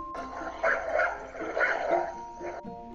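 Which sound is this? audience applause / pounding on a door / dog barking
dog barking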